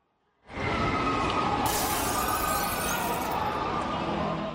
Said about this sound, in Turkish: Yemen'de şiddetli fırtına sırasında havalimanı terminalinin cam cephesi parçalandı. Cam kırıkları nedeniyle 6 kişi yaralandı.